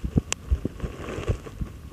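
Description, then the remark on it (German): Soft, muffled low thumps pulse through a rumbling background: a heartbeat picked up by a contact microphone pressed against the chest under an opened shirt, with a faint rub or click now and then and no talking. “Ach so, richtiges Herzklopfen. Ja. Dein Herz.”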